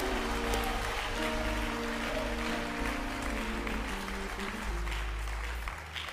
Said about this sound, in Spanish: ¿Puede darle un aplauso a Jesús fuerte? Aleluya.